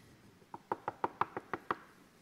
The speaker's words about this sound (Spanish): quizá un poco convencido, se dispone a tocar la tercera puerta.